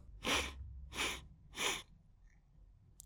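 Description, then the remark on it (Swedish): A storyteller's voice imitates a dragon sniffing: three loud, breathy sniffs in an even rhythm, each a short hissing burst of air, followed by quiet. “Och det första han gjorde var att sniffa.”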